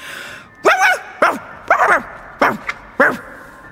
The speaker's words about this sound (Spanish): Después se puso frente a mí y comenzó a ladrar muy fuerte, muy fuerte, tan fuerte, tanto que el pulpo se asustó y se marchó.